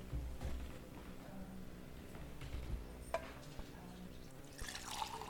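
Water trickles and splashes into a glass, a steady liquid pour with small drips, moderately quiet, with faint room noise and no talking.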